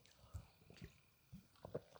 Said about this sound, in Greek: Να πιω μια γουλιά νερό.